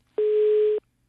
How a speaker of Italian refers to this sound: No, direi che c'è un problema evidentemente di linea telefonica, probabilmente è caduta.